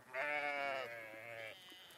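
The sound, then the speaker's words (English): A single sheep bleats loudly, one long wavering cry lasting over a second before it trails off, with no talking. “Bah! Come on. Come on, sheep. Bah! Come on, sheep.”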